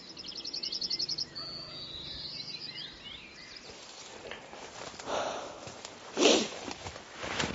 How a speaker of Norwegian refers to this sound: Nå har vi den, har vi den store seksdageren der borte, og så en gaffelbukk der. Og så står hodyrene, to hodyr, og brøler på den store bukken.